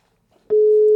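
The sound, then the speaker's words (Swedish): A steady, loud telephone ringing tone on an outgoing call to the speaker's ex-partner cuts in halfway through and holds as a single unbroken electronic hum, after a brief faint rustle. “Nu ringer jag till Michelle, mitt ex”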